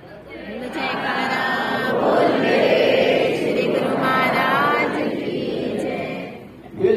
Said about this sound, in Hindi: और जो ही एक वचन श्री सदगुरुदेव महाराज जी का सुना तो गुरुमुख होने अंतर आत्मा से बड़ी जोर का जयकारा